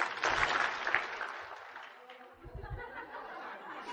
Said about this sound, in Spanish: El que me escuche, dos aplausos.